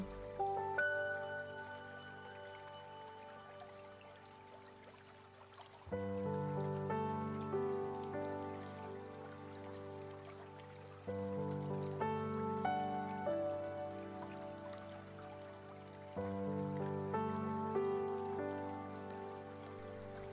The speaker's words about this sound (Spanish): Ahora imagina que estás en un lugar muy tranquilo, del lado de un río. El agua está fluyendo y tú la escuchas.